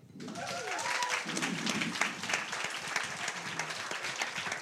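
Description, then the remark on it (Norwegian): An audience at UiB (University of Bergen) applauds steadily for several seconds to welcome a professor and academic leader of the Holberg Prize, a dense wash of clapping hands that stays fairly even from start to finish, with a few faint voices mixed in. “Gi en stor applaus”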